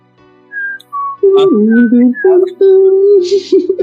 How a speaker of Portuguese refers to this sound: Toca é... música depressiva.